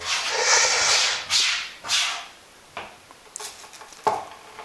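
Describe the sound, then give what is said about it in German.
Kitchen sounds of coffee being made: a few soft hissing, whooshing bursts followed by scattered light clinks and taps, fairly quiet, with no talking. “Ich mache mir jetzt trotzdem meinen Kaffee.”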